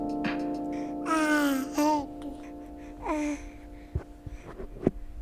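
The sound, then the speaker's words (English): A 10-month-old baby boy babbles in short, high, sing-song bursts, with a couple of drawn-out vocal sweeps followed by soft clicks and little mouth noises, no adult talking. “So I'm here with my 10 month old son”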